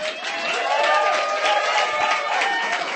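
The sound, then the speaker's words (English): An audience at a poetry reading claps and cheers steadily for three seconds after a poem, a dense wash of hand claps with shouting voices mixed in, loud and sustained without a break. “That's some mighty good clapping poetry tonight.”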